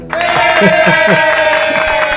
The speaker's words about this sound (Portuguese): Ei, olha aí, tá vendo? E essas palmas aí é, é, são palmas da floresta.